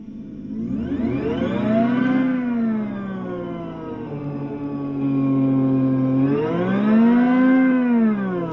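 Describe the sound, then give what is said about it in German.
A synthesized electric car sound, played by pressing a virtual accelerator pedal: a layered, steady humming tone climbs in pitch as if accelerating, holds, drops back, then surges up again in a second run. It is loud, with no talking. “Also ich kann gerne jetzt mal kurz mit meinem virtuellen Pedal hier Gas geben.”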